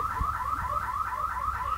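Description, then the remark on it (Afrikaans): An electronic alarm, accidentally set off by someone, wails continuously, its pitch sweeping up and down in a fast repeating cycle, steady and fairly loud throughout with no voices. “Yes, sorry, there was there was somebody that just uh, uh accidentally offset the alarm.”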